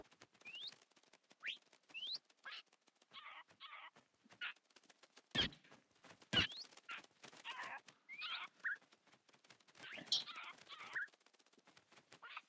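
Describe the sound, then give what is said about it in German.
Several parrots spawned in a video game squawk and chirp in a busy, overlapping flurry of short, bright calls, with a couple of sharp clicks or thuds cutting through. “So, jetzt habe ich auf jeden Fall hier ein paar Papagei gespawnt.”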